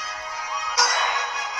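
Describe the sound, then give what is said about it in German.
A sound from the video game Pokémon Unite plays alone: a steady, bright electronic tone with layered harmonics that swells suddenly louder and fuller partway through, like a synth menu or loading jingle. “Jetzt hört man schon Game Sound.”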